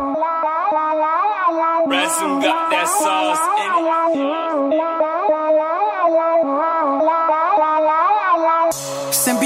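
A song plays loud: a sustained, melodic vocal line over steady instrumental backing, with sharp percussive hits starting about two seconds in and continuing throughout.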